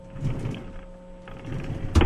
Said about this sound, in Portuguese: Peraí, abri a gaveta. Peraí, só um minutinho, tá?